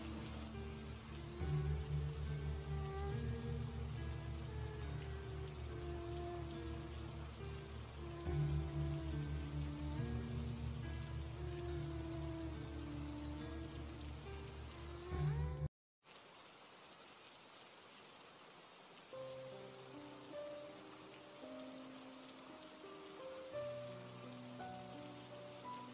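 Steady rain hisses continuously beneath soft, sustained musical tones, pausing briefly partway through before the rainfall and music resume at a slightly lower level. No one speaks.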